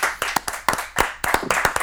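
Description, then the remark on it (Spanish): Brief applause made of about a dozen sharp, uneven hand claps over two seconds, fairly loud and irregular, sounding like a handful of people clapping with no voices, welcoming a guest. “transcripciones de nuestra invitada de hoy, a quien vamos a recibir con un aplauso estruendoso,”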